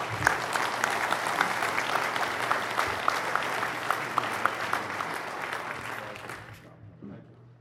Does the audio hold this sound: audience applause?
yes